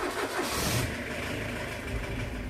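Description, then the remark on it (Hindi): A taxi's engine cranks and catches, then settles into a steady, rumbling run, loud with no voices, as it sets off from Kasampur in Uttar Pradesh. “उन्हीं के साथ गाड़ी में बैठकर वो रवाना हो गए”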